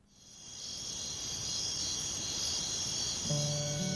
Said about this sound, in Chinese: 今年蝉鸣得早，杜鹃花还没零落，就听见断续的蝉声了。近月来，窗外蝉更吱吱不休，使事忙的人听了很烦。